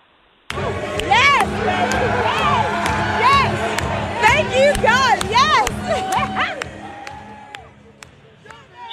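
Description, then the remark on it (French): A crowd at a party bursts into loud, joyful cheering as Fox News announces that Trump has won the state of Florida, with high excited shouts and whoops rising over a dense roar of voices that stays strong for several seconds before easing slightly. “Euh, ça a commencé, oui, le parti a levé en bon français quand Fox News a annoncé, euh, avant les autres réseaux, que Trump remportait ici l'État de la Floride. Ça a explosé de joie.”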